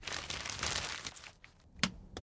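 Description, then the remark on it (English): A paper message slip is crumpled up by hand and thrown toward a trash can: a dense, crinkly rustle for about a second, easing off, then a couple of sharp crackles before it stops abruptly. Fairly quiet, no voices. “who glanced at it briefly, crumpled it up, and threw it toward the trash can.”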